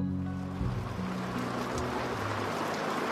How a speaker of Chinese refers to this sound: 回来的路上，海迎着大雨驾着龙船。这艘船连飞行噪音都没有，很平静。